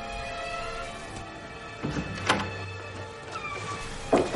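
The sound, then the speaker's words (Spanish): A door opens with a drawn-out creak and a few soft knocks and thuds, a final clunk at the end, moderately loud against a steady tonal background. “Escucha una puerta y se gira hacia ella.”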